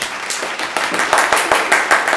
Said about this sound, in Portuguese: Então, vamos começar mais um Gostei de Vocês. Uma salva de palmas pra gente.